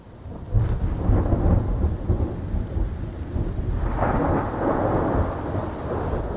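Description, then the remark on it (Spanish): A thunderstorm, given as an example of brown noise, with deep, rolling thunder rumbling continuously over steady rain, loud and low-pitched, swelling again toward the end with no voices present. “Sonidos comparables con un oleaje más fuerte o una tormenta con truenos.”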